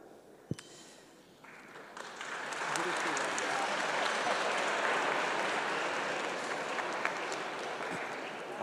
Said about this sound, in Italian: Applauso sottolinea la bellezza della domanda.